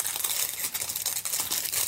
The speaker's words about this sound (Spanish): Y antes de comenzar el episodio, déjame abrir un chocolate, una chocolatina jumbo. Estoy guardando los empaques.